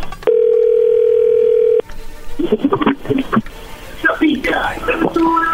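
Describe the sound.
A steady telephone ringback tone, heard while placing a call, sounds for about a second and a half, clear and continuous, then cuts off as muffled, whispery voices and quiet talk follow.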